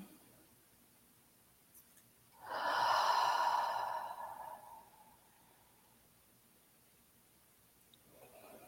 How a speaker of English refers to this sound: Well, let's take a let's take one conscious breath together and we'll close out.